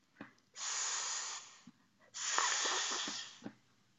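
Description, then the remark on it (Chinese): Two long, steady snake hisses, each about a second, separated by a short pause, with faint breathy clicks around them. The hisses are bright and airy, and no one speaks. A snake coiled on a rock in the sun raises its head and flicks its forked tongue. “蛇昂起头，吐出分叉的舌头，发出声音。”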